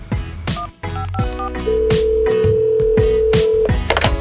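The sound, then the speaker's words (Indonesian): A few quick dual-pitch keypad beeps of the emergency number 112 being dialed in Madiun to report a fire, followed by a long steady tone, all set against a rhythmic, punchy musical backing with no talking. “Oh begitu, ayo buruan telepon sebelum apinya membesar”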